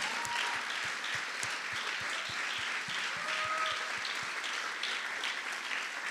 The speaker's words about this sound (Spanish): Y hay que dar un aplauso lo más fuerte que podamos a todos los voluntarios y voluntarias de CDO. Gracias.